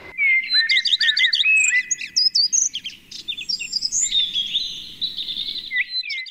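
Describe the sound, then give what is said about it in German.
Several garden birds sing and call at once, a dense, lively chorus of bright chirps, trills and whistled phrases that continues steadily throughout, with a soft low rumble beneath; a compilation of garden bird voices from archive recordings. “So, und damit auch ihr mal hört, wie sich so Gartenvögel anhören, haben wir mal im Archiv gekramt und so ein paar Stimmen zusammengestellt.”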